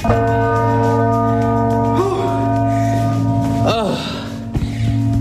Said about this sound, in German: als Glöckner beim Glockenturm von der Kille Guthirt an der Rosengartenstrasse. Die suchen nämlich Glöcknerinnen und Glöckner.